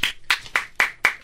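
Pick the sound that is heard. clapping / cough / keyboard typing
clapping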